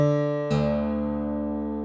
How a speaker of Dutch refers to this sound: Je ziet, ik sla ook de D-snaar aan om te horen, hey, heb ik een goede D?